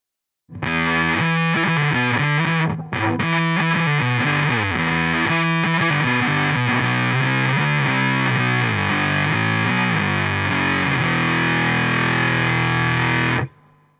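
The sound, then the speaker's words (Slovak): An electric guitar played through a fuzz effect, a type of distorted signal, plays a sustained, buzzy melodic line with thick, saturated harmonics. It is loud and ends on a long held note before cutting off. “Je to ďalší typ skresleného signálu, jehož natúru podľa mňa popísal zaujímavo ….”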